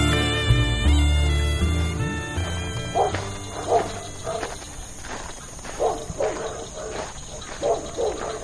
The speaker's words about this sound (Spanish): ¿Habéis oído ese aullido? Cuando un perro aúlla a la luna, no ladrando, sino como un lamento, dicen desde antiguo que está anunciando peligro, muerte, maleficios, eh, brusas, brujas que rondan